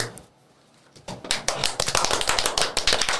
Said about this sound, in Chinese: 四人就是好啊，有鼓掌啊，此处有掌声啊。